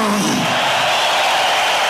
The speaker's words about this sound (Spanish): Con un aplauso de toda la bola de cabrones, claro.